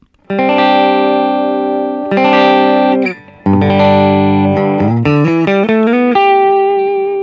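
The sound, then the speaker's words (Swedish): A dry electric guitar, played with only the ACS and no delay, plays three loud, ringing chords, each left to sustain, then finishes with a quick climbing run of single notes and a held final note. No effects or talking are heard. “Och här låter gitarrljudet bara med ACS.”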